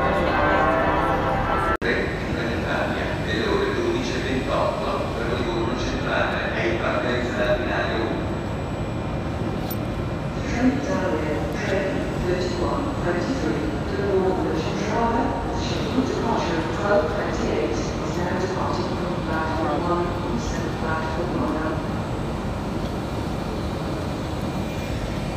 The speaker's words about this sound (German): Wir sind jetzt hier am Bahnhof von Florenz und äh, Santa Maria Novella. Genau, und warten darauf, dass wir in den Zug steigen in Richtung Monte Catini.